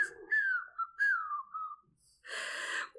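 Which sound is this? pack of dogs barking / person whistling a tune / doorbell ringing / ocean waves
person whistling a tune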